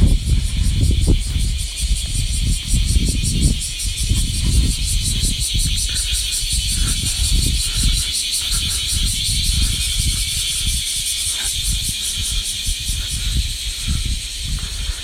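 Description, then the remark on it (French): Loud, continuous chorus of cicadas in a tree in summer: a shrill, high, rapidly pulsing buzz that never lets up, with low rumbling thumps and gusts underneath throughout. “Alors les cigales, vous allez me dire, bah ouais, les cigales, c'est l'été, le sud, les vacances.”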